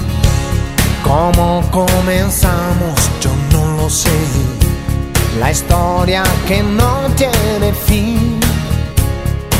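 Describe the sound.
A Spanish-language pop ballad with a male voice singing expressive, sustained lines over steady drums, bass and keyboards, loud and continuous throughout.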